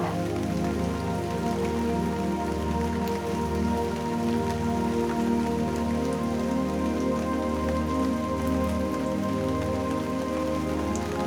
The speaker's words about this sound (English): Visualize the rain falling